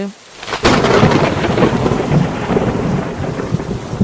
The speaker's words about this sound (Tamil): திடீர்னு ஒரு சத்தம் குடோனுக்கு வெளியில இருந்து ஏதோ இடி விழுந்த மாதிரி